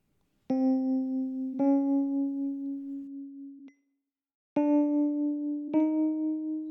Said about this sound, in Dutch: En een halve noot, ik zou even een paar spelen, dat, dat klinkt zo.